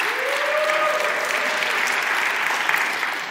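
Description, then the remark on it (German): Steady applause from a crowd, a dense wash of clapping holding at an even, fairly loud level for a few seconds, with a brief whistle-like tone rising over it early on. “Ich finde, kann auch meinen Applaus verdienen, oder?”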